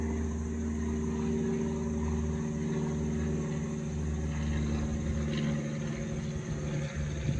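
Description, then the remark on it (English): A steady, low droning of an airplane passing overhead, its engine hum holding fairly constant and moderately loud throughout, with no voices. “Is that the same airplane?”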